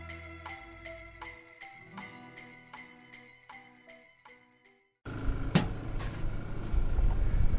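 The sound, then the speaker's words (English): A bright, chiming electronic melody plays for about five seconds, then cuts abruptly to a steady, louder wash of street traffic noise with a brief sharp clatter, at a souvlaki food cart on the corner of Ditmars and 33rd. “the souvlaki lady, and me, chopping it up through our masks at her cart on the super Hellenic corner of Ditmars and 33rd.”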